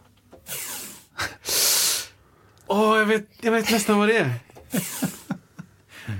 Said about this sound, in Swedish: Ja, men det är någonting man drar ut, helt enkelt. Tejp. Ja. Ah, ja, ja. Tape.